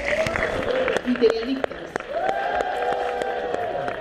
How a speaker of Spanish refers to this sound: Escucharon en WhatsApp el escandalazo y los aplausos, ¿no?